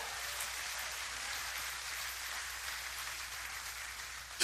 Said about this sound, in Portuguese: Tem mais alguém aqui comigo? Dá glória a Deus, aplauda o Senhor se você crer.